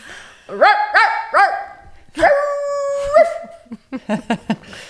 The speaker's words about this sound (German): So, meine Hunde bellen so.